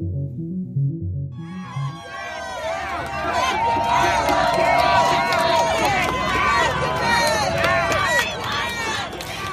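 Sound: crowd cheering and celebrating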